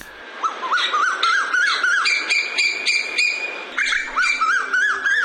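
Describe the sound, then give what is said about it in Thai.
A male and a female Asian koel call together in a loud, continuous duet, the male's quick rising whistled notes repeated rhythmically and overlapping with the female's sharper, harsher calls for the whole stretch, with no talking. “และเสียงร้องกาวว่าวกาว่าวเนี่ยเป็นเสียงของนกตัวผู้ค่ะ ส่วนนกตัวเมียจะส่งเสียงร้องแบบนี้ค่ะ และถ้าตัวผู้ตัวเมียอยู่ด้วยกันเสียงก็จะเป็นแบบนี้ค่ะ”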